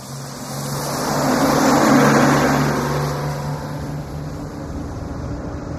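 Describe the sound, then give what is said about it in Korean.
A steady bus engine rumbles with a low droning hum and road noise on a night bus heading via Hamyang to Inwol, about an hour after departure, swelling slightly louder midway as if accelerating, then settling into a constant cruising drone. No one speaks. “버스가 출발한 지 한 시간여가 지났을 때.”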